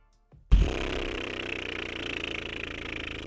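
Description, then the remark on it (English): A sudden burst of rushing air starts after a brief silence and keeps hissing and sputtering steadily, like a balloon or tire deflating, loud with no voices; a deflating sound effect. “That sound you hear is the deflating loss on an otherwise historic night for your Portland Trailblazers.”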